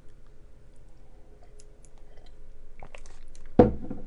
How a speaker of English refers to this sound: This is, hold on, sip a tea.